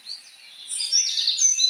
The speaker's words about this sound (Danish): jeg kan i hvert fald høre fugle, der synger